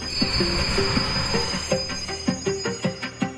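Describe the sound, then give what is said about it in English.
An oncoming train arrives at a crowded station platform with a high, steady squeal of wheels on rails over a rumbling roll, then a series of rhythmic clacks and tonal thuds picks up toward the end. No one speaks. “I was too close to the platform edge, lost my balance, and fell into the path of the oncoming train.”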